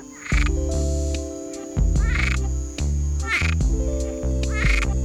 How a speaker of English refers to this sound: The Cuban tree frog is nocturnal, so it sleeps during the day and wakes up at night to hunt and breed. I like this frog because its call sounds like me when I haven't been drinking enough water.